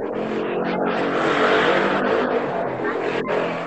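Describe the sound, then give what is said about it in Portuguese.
A loud motorcycle engine roars steadily for a few seconds as a motorcycle passes by outside, with a broad, rough rumble that swells slightly in the middle and stays strong throughout. “repete, por favor, problemas com seu cônjuge, porque a moto passou em algum canto.”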